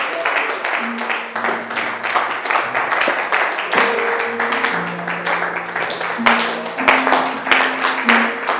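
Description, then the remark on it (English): A church audience stands and claps hands to the Lord steadily and continuously, a dense crackle of many palms over sustained keyboard or organ notes, with faint voices mixed in. “Stand to your feet and clap your hands to the Lord.”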